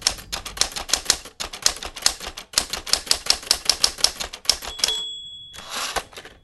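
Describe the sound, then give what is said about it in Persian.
Rapid, steady clacking of typewriter keys as a typist types news copy for publication, loud, with short pauses between bursts, then a bright bell ding and a carriage return sweep near the end. No voices. “مطلب ارسالی توسط تایپیستا تایپ میشد و باقی مراحل برای انتشار انجام میشد”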